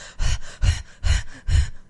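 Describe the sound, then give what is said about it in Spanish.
A voice imitates a man's heavy, wheezy, asthmatic breathing, like someone choking: four rhythmic, raspy breaths in quick succession, each with a hoarse whistling edge like an asthmatic struggling for air. “de repente oí una respiración mm, como un poco asmática, como”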